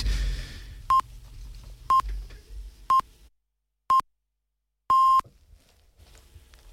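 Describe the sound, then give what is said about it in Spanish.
Canal Sur Radio time signal beeps marking the half hour at 7:30 in the morning: four short, identical high-pitched pips spaced one second apart, then a longer final tone, heard over a low rumbling background that falls silent midway. “Acaban de dar las siete y media de la mañana.”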